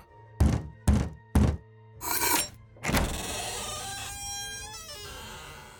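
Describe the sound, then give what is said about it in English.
Three heavy, evenly spaced knocks on the door of a house, followed by a scraping rattle and a lingering creak. No one speaks. “Let's knock.”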